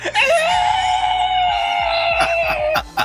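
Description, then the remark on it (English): A person lets out a loud, sustained screeching roar imitating a Tyrannosaurus rex, holding one strained high note for nearly three seconds before it breaks off. “And then he, he does his classic uh, Tyrannosaurus Rex scream out”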